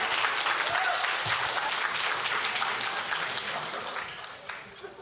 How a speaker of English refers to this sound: And isn't the hotel staff just wonderful here? Let's give them a hand.